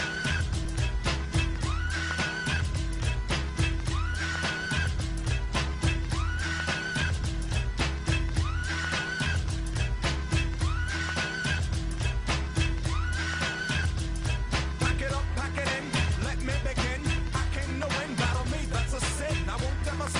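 A hip-hop track plays loudly with a punchy, steady bass-heavy beat, while a high squealing sample repeats every couple of seconds over the top like a recurring shriek.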